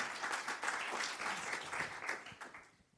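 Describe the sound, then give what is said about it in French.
An audience applauds to thank a small group of about six guests for coming, with dense, steady clapping that holds for a few seconds, then thins out and fades away at the end. “En tout cas, on vous applaudit, on vous remercie d'être venu avec nous.”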